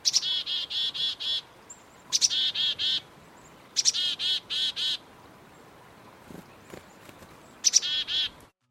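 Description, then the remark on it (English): A black-capped chickadee repeats its chickadee-dee-dee call four times, each a sharp opening note followed by a quick run of buzzy dee notes, clear with no talking. “When the black capped chickadee calls, it sounds like it's saying its name, their song call sounds like chickadee dee dee dee dee, chickadee dee dee dee dee.”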